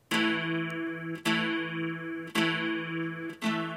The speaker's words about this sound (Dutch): … pakt dus een akoestische gitaar vast en hij speelt een heel simpel partijtje. Vier akkoordjes, moet ongeveer zo geklonken hebben.